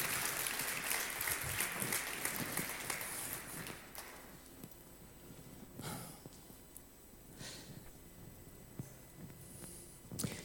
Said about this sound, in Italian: Alleluia, facciamo un applauso al Signore, vi invito ad alzarvi.